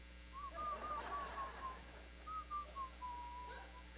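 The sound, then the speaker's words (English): A person whistles a soft, wavering tune in two short phrases, each gliding downward, with a brief pause between them against quiet background noise, while washing their hands in a locker room. “I just wash my hands. I whistle too.”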